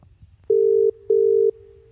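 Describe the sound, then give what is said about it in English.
An outgoing phone call's ringback tone as a call is placed to Teabag: two steady electronic beeps, each about half a second, separated by a short gap, clear over a low background hum. “Call teabag. Calling teabag.”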